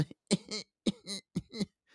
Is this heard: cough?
yes